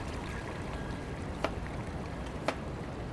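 A small stream flowing quietly through the town streets of Sumida Ward in the evening, with a steady, continuous rushing babble broken twice by brief splashy clicks against the even wash of water.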